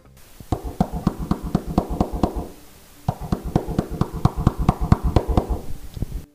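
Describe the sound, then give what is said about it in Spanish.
Soldiers knock rapidly and forcefully on a house door in Jericho, in two insistent bursts of about a dozen raps each, separated by a brief pause. It is loud, with no voices. “Señora, señora, señora, abra la puerta.”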